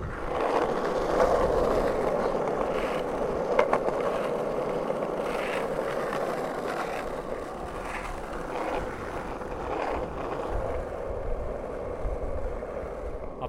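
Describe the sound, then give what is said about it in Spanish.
A skateboard rolls steadily over pavement in Saint Moritz, its wheels producing a continuous gritty rumble with small clicks and bumps from cracks in the surface, sustained and fairly loud for the whole stretch without talking. “Escuchen un poquito de patín.”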